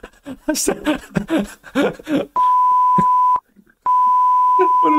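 A man talks briefly, then a loud, steady censorship beep cuts in for about a second, drops out for a moment, and returns as another long, unbroken tone.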